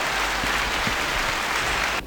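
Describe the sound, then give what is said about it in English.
A crowd cheering and applauding for a candidate vying to be the 93rd Miss Virginia State University, a dense and steady wash of clapping that stays loud throughout and then cuts off abruptly at the very end. “But we gotta let the crowd know. Hey, crowd!”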